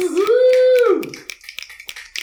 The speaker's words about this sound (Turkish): Bu vuhu sesi de sanki stoktan almışız gibi oluyor, iyi oluyor. Evet. Halbuki hep burada bir vuhulayanımız var.